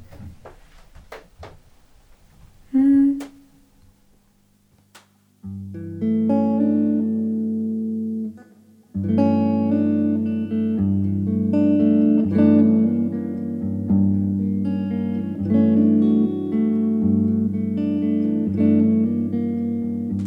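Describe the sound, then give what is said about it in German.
After a few scattered clicks and a brief tone, a band launches into a reharmonized arrangement of a song, with full, sustained chords that shift steadily, loud, with no one talking. “Und jetzt kommt so eine Mischung von meiner Version”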